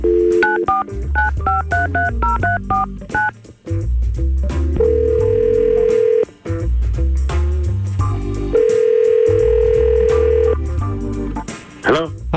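A quick run of telephone keypad beeps, then two long, steady phone tones with a pause between, as hosts of the Y100 radio show place a call and it rings, over a low background music bed.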